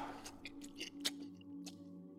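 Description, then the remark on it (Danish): Quiet mouth sounds of biting into a small banana and chewing, with a few moist smacking clicks and squishes spread over a couple of seconds, no talking. “Tag en bid af den lille banan.”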